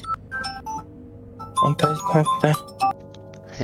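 A bright electronic telephone ringtone signals an incoming call, playing a quick run of melodic tones, louder bursts in the second half, with faint background murmur underneath.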